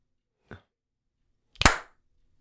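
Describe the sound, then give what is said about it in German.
Two sharp hand claps, a softer one followed about a second later by a louder, fuller clap with a brief ringing tail, against an otherwise silent background. “Hast du geklatscht? Ich habe geklatscht.”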